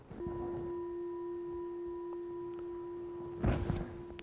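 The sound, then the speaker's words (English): A meditation gong is struck once near the start and rings on with a steady, pure humming tone that sustains through the whole clip, with a brief rustling noise near the end. “So we'll invite the bell, the gong to sound.”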